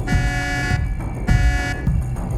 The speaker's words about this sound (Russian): А вон едет машина Тоже что-то везет